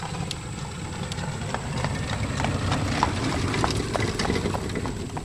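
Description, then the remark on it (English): A horse and buggy passes by on a road in Bergholz, hooves clip-clopping in a steady, even rhythm over a low rumble of thin buggy wheels rolling on the road, with no one talking. “Uh, my cousin Eli just went by in his horse and buggy, and I waved, and he kind of gave me a dirty look and kept going.”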